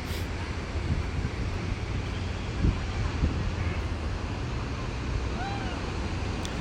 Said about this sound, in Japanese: ちょっと風が強いからボーボー行ってるから大丈夫ですかね今こう今あのビーチの横に座ってるんですけども結構いろんな音聞こえるんじゃないですかね歩いてる人もたくさんいるんで英語とかね話し声も聞こえると思うんですけども